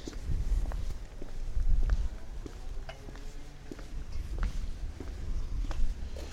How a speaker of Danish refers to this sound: Jeg kan lige prøve at gå derover og tælle skridtene.